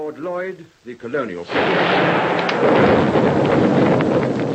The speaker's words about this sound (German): Eine deutsche Fliegerbombe ist eingeschlagen gleich neben dem Nachrichtenstudio. Dann fährt der Nachrichtenmann ungerührt fort.